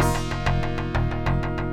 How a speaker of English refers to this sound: I think it's fitting to close off the day with another kind of classic Genesis title screen. This is the title theme of Gunship.